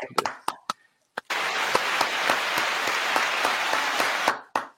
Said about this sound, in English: Let's clap it up for him.